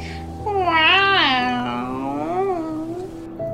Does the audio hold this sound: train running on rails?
no